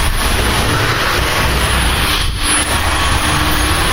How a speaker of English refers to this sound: We're on the medium medium mode, so I'm going to turn it on, and hopefully you'll hear it speed up. We'll probably find some dirt around the bird cage. It's extremely quiet for a cordless sweeper. It is.